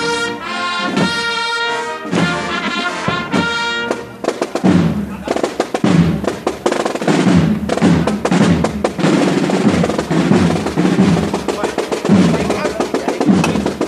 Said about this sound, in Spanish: y suena el martillo, los zancos al suelo, ese martillo que lleva los escuditos de todas las hermandades del miércoles santo.